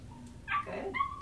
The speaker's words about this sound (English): Good dog.